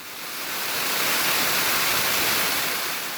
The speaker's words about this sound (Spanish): Hola Confama Radio, este sonido es de la cascada que se encuentra en la vía El Salto Guadalupe, cerca al Mirador de la Cruceta. Este es un paisaje sonoro que se disfruta uno mucho en esta región.